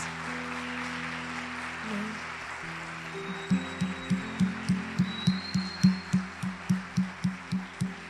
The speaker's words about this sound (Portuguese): Eu quero pedir uma salva de palmas para vocês.